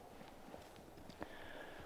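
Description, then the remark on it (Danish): Soft, irregular hoof thuds of a horse walking on an open field of about 8 hectares, quiet, with a faint outdoor hiss and a thin high tone in the background; no one speaks. “Der er faktisk øh, en, øh, en hest mere på, på trænget her.”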